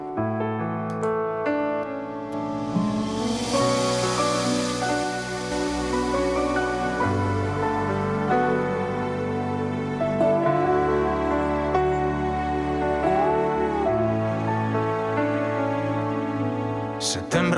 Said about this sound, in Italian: Io sto già mettendo su un suo brano.